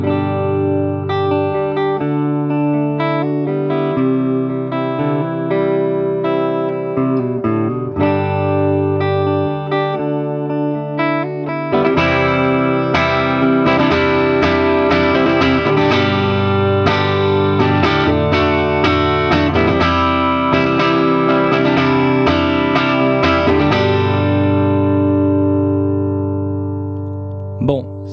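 A tuned drum, recorded with an SM57 dynamic mic stuck to the outside of the shell and an SC140 condenser mic set further back to capture the room, plays ringing, pitched notes on its own, with slower sustained tones at first and then a busier run of quick, bright strikes before fading out.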